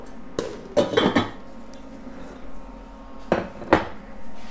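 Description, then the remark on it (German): Metallic clanks of a pot lid being picked up and set down while making semolina dumplings, a cluster of sharp ringing knocks early on and two more a few seconds later, over a quiet background. “Hier ist der Deckel.”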